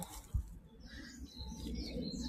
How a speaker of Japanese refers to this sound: あとね、こっちの入り口の方、行くと、もう本当にと鳥のさえずりって言うんですかよく聞こえてくるんですけど。